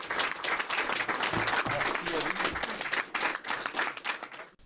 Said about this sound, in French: je crois qu'on peut applaudir M. vous.